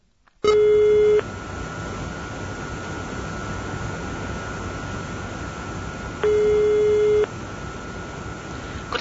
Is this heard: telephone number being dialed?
yes